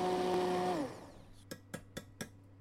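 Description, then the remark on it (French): A blender whirs loudly in a short, steady burst while blending a blackberry and raspberry compote, then winds down to a stop, followed by four sharp knocks in an even rhythm. “Maintenant que c'est bien compoté, on va juste passer un tout petit coup de mixeur et ensuite on va le passer au chinois étamine pour enlever euh, les grains.”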